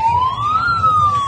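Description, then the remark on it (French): An English police car siren in England wails loudly, one smooth rising then falling tone over a low rumbling engine, with no voices. “C'est une sirène de police anglaise d'Angleterre.”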